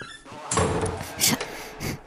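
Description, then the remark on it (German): A door in a house slams shut, a loud thud followed by a couple more rattling knocks over about two seconds, with some muffled noise between the impacts. “Scheiße, was ist denn jetzt mit der Tür los?”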